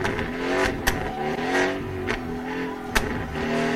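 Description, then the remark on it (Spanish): A safety car's engine accelerates along the main straight of a race track toward the left-hand turn 1, revs climbing and dropping through several sharp gear changes, steady, with no one talking. “Recta principal. Safety car. Curva número 1 a mano izquierda. Escuchen.”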